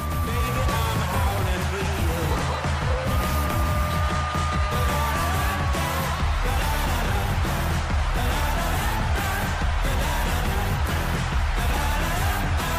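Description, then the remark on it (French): A loud arena hockey goal horn blares continuously after a goal while a wavering coyote howl glides across it, all over the dense roar of a cheering crowd, added crowd noise, that keeps going for the whole stretch. “c'est la sirène avec le bruit du loup. Lorsqu'il marque, t'entends le coyote hurler.”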